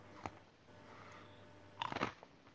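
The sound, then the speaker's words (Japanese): Someone eating and chewing food, with a brief crunchy bite early on and then a cluster of several sharp, wet chewing crunches near the end, over a quiet background hum. “あ、なんか食べてますね。”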